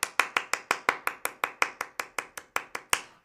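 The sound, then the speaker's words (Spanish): Hand claps ring out in a steady, evenly spaced run of about seventeen sharp, bright claps, with no talking, like a single person applauding students for doing very well in a Spanish lesson. “una ronda eh, genial de aplausos porque lo hicieron muy muy bien.”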